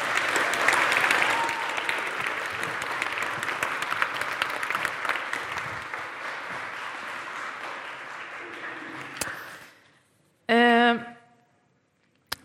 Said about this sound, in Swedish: Tack så mycket för alla era berättelser. En applåd nästan, tycker jag.